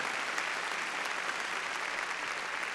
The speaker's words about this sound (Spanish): Démosle palmas fuertes a nuestro Señor.